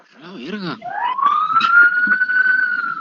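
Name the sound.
police patrol car siren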